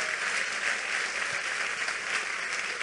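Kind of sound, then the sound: crowd, audience applauding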